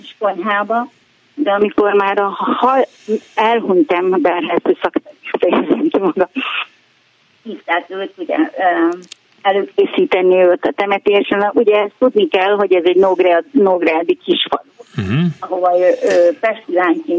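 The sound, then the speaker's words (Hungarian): A woman's voice comes through a phone line on speakerphone, thin and band-limited with the bass and treble cut off, talking steadily with a brief laugh and short pauses, her voice at times cutting out. “Bocsánat, ugye nem, nem szóval- kihangosítón beszélsz velünk.”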